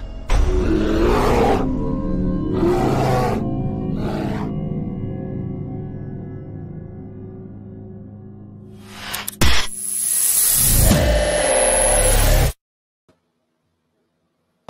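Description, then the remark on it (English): A grizzly bear roars in several loud, rough bursts over a deep sustained growl, then lets out a harsher, hissing roar before the sound cuts off abruptly into silence. “It's a grizzly.”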